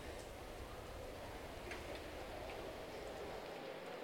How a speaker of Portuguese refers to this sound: Eu estou aqui no Megaposto, no estádio do Palmeiras, em Perdizes, zona oeste de São Paulo. Está caindo uma chuva aqui em São Paulo